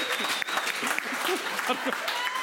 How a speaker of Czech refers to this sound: A vy vydáte takový aplaus, což znamená, že ty lidi se to naučí a nebude díl bez Dominika Ferioka.